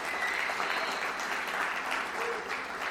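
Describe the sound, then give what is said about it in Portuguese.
An audience applauds their pastors steadily, a dense, even wash of many hands clapping that holds at a constant loudness for the whole few seconds, with no voices standing out. “Então eu gostaria de que, pedir para que vocês aplaudissem a vida dos pastores de vocês.”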